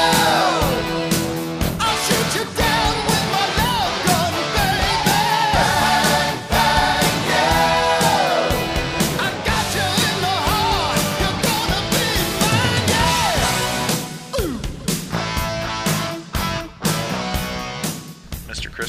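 A loud 1980s rock song plays continuously, with a driving drum beat, dense distorted guitars and a strained, shouting lead vocal sliding between pitches, easing slightly in the final few seconds.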